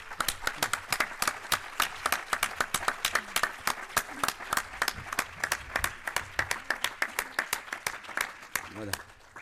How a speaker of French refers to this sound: Et un grand applaudissement pour les Dominis, pour leur accueil et tout ce qu'ils font pour nous.